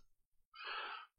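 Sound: sneeze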